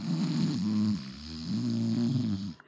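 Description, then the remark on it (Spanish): A voice imitates the loud snoring of a man who fell asleep in a cinema: two long, rumbling snore sounds, each over a second, with a brief pause between them, fairly loud. “Luego, llega un momento, el cabrón se durmió. Y no conforme con que se durmió, güey, empezó a roncar.”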